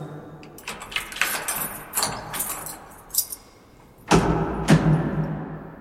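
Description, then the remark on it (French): Keys on a ring, including a homemade master key, jangle in several bright, metallic bursts, with a louder shake near the end, with no one talking. “La clé Alors c'est un passe qu'on s'est fait nous-mêmes.”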